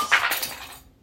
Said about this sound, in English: I apologize for that noise. A pen just dropped.